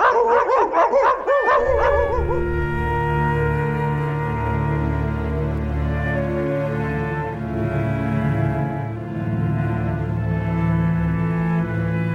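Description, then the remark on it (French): A pack of dogs, one morning, barks excitedly for a couple of seconds on spotting a boy hiding in a thicket, then breaks into long, overlapping howls that carry on loudly and steadily throughout, with no one speaking. “Et puis finalement, un matin, les chiens le repèrent.”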